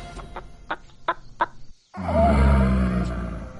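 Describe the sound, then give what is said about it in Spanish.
A bird clucks in a quick, steady series of about half a dozen sharp calls. After a brief pause, a loud, rumbling roar-like sound takes over. “El pájaro observa espantado.”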